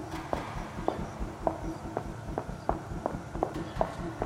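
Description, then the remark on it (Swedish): A woman's footsteps coming quicker than usual: a brisk run of about ten sharp, evenly spaced taps in quick succession over a low rumbling background, with no voices. “Stegen kom tätare än vanligt, som att hon gick mycket snabbare.”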